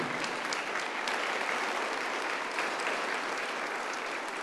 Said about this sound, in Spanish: De un aplauso al Señor.